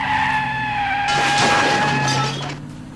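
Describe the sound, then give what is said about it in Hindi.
A car tears away at speed while escaping pursuers in a chase, with high, sustained tire squeals and a burst of harsh crashing noise erupting midway before fading. Loud, with no talking. “रवि गाड़ी लेकर उन लोगों से बचाते हुए उसी कॉलोनी में पहुंच जाता है”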